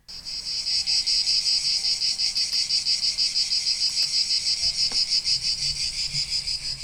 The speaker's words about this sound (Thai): จักจั่นเป็นแมลงที่ถือกำเนิดเกิดมาบนโลกนี้ยาวนานมากๆค่ะ ยาวนานก่อนที่จะมีมนุษย์เกิดขึ้นบนโลกใบนี้ซะอีกนะคะ